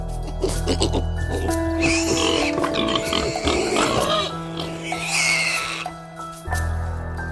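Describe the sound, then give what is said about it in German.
Several domestic pigs grunt and squeal, a busy, overlapping mix of snorts and higher-pitched calls that keeps going for the whole stretch with a steady low rumble underneath. “Auch Hausschweine suhlen sich gerne im Schlamm, nur haben sie meist keine Gelegenheit dazu.”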